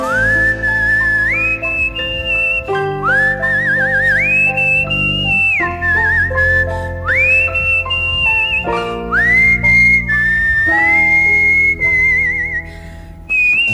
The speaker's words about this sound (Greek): Ωραίο σφυριγματάκι αυτό, πάρα πολύ ωραίο.